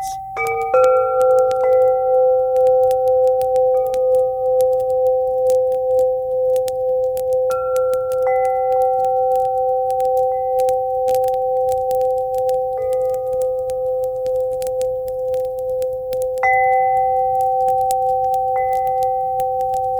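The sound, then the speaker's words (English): Soft chimes ring out in sustained, overlapping tones, with new higher notes entering every few seconds over a steady mid-pitched hum. No one speaks; the ringing carries on evenly throughout. “Let's take a minute while these chimes play to share any reflections.”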